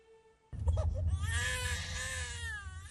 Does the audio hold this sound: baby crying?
yes